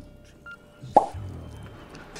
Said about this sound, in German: Die Korken knallen und es schlug die letzte Stunde im alten Jahr.